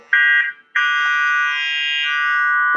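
A loud, steady electronic synthesizer tone plays in two bursts: a short buzzy note, a brief gap, then a longer sustained tone whose timbre shifts slightly as the synthesizer's volume knob is turned.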